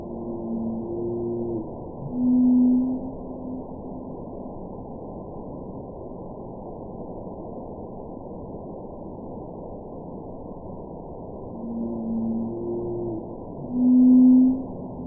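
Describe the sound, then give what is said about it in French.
Whale song from a newly discovered whale population off Oman, in the northwestern Indian Ocean: low, droning tonal moans in two similar phrases, one at the start and one near the end, separated by a long stretch of steady underwater hiss. No one speaks. “Et on a cette nouvelle population qui, a été, euh, qui vient d'être découverte euh, au large d'Oman, donc dans l'océan Indien nord-ouest. Donc voici le champ.”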